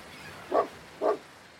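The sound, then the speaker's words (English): A dog named Mudge barks twice in quick succession, two short, clear woofs about half a second apart over a quiet background, just after a car horn honks on arrival at the ocean. “Henry's father honked the car horn. Mudge barked.”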